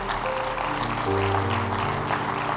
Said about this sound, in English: Would you give the Lord a big round of applause this morning?